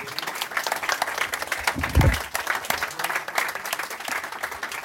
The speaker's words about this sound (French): Je pense qu'on peut l'applaudir à nouveau. Merci.